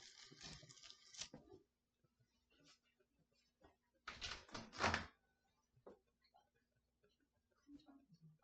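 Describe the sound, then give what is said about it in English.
A door is opened, with a loud rattling clatter at the start and another heavy burst of handling noise midway, then quieter shuffling and faint background murmurs. “Is on my door?”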